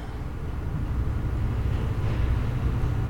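A garbage truck's heavy engine rumbles steadily outside, a deep continuous drone with grinding noise that holds at a fairly loud level for a few seconds, with no one talking.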